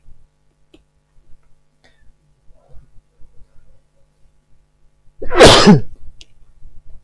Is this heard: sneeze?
yes